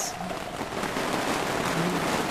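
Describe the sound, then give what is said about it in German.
Steady, fairly loud rain pours outdoors, a dense continuous hiss and patter with no pauses, like a heavy downpour, growing heavier as wine is poured for people sitting outside. “Und pünktlich zum Einschenken wird auch der Regen stärker.”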